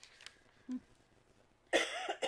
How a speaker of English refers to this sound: and it's going to be worse because I still have a cough from COVID